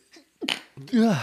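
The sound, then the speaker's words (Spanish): A single quick sneeze bursts out, a sharp breathy blast after a faint intake, followed right away by a brief voiced sound from a person. “Salud.”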